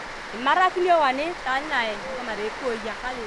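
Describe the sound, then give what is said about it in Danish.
Heavy rain drums steadily on the iron roof of a windowless Catholic church building, a constant dense hiss and patter filling the background while a person speaks loudly over it. “Vi må næsten råbe for at overdøve regnen, der trumler på jerntaget.”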